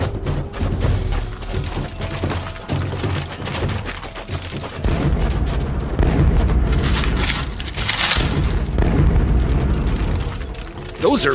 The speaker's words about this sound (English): sonic booms. They're getting close.